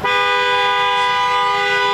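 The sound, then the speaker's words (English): A car horn blares in one loud, continuous honk that holds steady for the full two seconds, with no talking over it. “Now he's honking real loud for some reason.”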